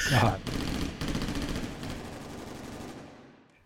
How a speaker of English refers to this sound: it's McCarty's gunfire that eventually drives the bank robbers off, the four surviving bank robbers, and they turn around and start heading up the hill and they kind of clamber over that landslide.